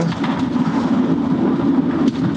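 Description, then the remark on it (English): A steady, even engine purr from a van cruising at 40 through the hills on the Welsh-English border near Leominster, a constant low droning hum with road rumble underneath and no breaks or changes in loudness. No one speaks. “Yeah, that engine purr.”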